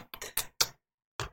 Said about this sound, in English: that's the sound of kisses nice.